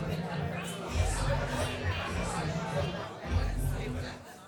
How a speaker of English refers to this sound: A lot of chatter in the crowd right now.